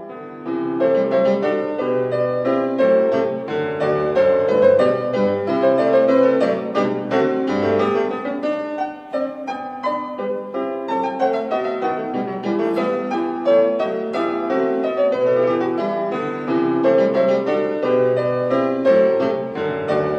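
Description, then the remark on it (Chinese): A classical keyboard variation, the second piece of a set of variations, plays on its own, with busy, rhythmic runs of plucked-sounding notes across middle and upper registers at a steady, moderately loud level, and no voices. “正在播放的这个变奏，我觉得它的节奏挺有意思的。”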